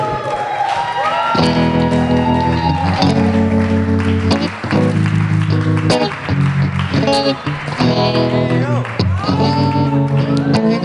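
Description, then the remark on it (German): Loud, sustained audience applause with cheering and shouted whoops runs for about eleven seconds as the week's snack tip is brought onto the stage, mixed with bright tonal, music-like sounds that rise and fall in bursts. “Bitte einen großen Applaus für der Snacktipp von der Woche”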